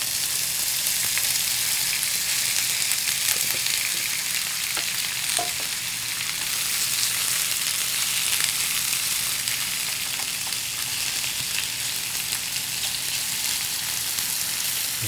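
Pork belly sizzles steadily in a hot pan as it stir-fries, a dense, crackling hiss that stays loud and even throughout, with a few sharp pops and scraping stirs and no talking.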